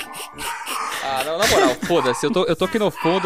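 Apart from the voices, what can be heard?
dog barking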